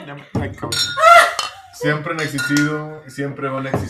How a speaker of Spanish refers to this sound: Para finalizar, vamos a hacer un brindis por los fieles y por los infieles.